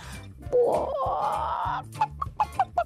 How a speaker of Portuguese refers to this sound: É mais galinha, não é?